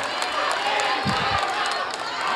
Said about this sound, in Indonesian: Saya kasih waktu untuk berikan tepuk tangan bagi ketiga calon presiden. Silakan.